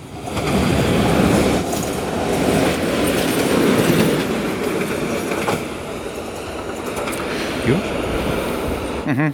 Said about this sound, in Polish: Czekaj, bo kolejny pociąg jedzie z drugiej strony. Nie wiem, jak głośny będzie.